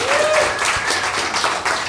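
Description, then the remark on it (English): An audience breaks into steady applause for comedian Chris Ryan, announced in second place on five points in a quiz, a dense wash of many hands clapping at an even loudness, with a few faint whoops or cheers rising through it. “Round of applause Chris Ryan.”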